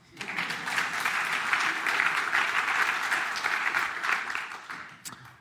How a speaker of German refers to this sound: David. Ein Applaus.